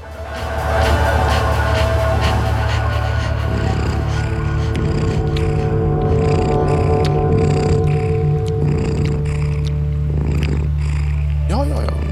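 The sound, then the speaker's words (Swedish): A cat purrs steadily on a song recording, a low continuous rumble that runs through the whole stretch beneath sustained droning tones, with faint sounds of movement scattered on top. “En katt som spinner.”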